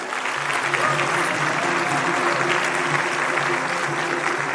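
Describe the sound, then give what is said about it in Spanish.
Steady, sustained applause from an indoor audience at a Ganaxel business meeting, welcoming new entrepreneurs who bought their executive package in the last four weeks; many hands clapping densely at a constant level for several seconds, with faint voices mixed in beneath the clapping. “Un aplauso para ustedes, bienvenidos.”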